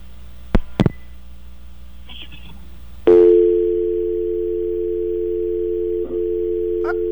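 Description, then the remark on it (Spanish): A listener's call to a phone-in show drops: a couple of sharp clicks are followed by a sudden steady telephone dial tone, a loud continuous hum-like pitch that holds for several seconds with a brief dip near the end. “se cayó.”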